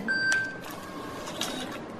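A queue ticket machine at the reception of a mammography and ultrasound clinic gives a steady electronic beep, then a brief mechanical whirr and clack as it prints and pushes out number slip 268, over a low background hum.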